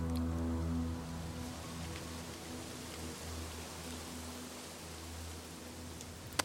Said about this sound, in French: Et ce vent dans les arbres. Vous avez écouté ça, c'est extraordinaire.